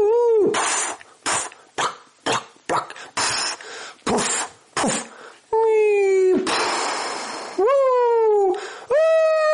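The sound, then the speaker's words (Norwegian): One voice mimics a football stadium crowd just before and after a goal: quick rhythmic breathy bursts like chanting, then a hissing roar and long, loud wailing cheers that rise and fall. “Lyden av fotballstadion rett før og eh, til etter et mål.”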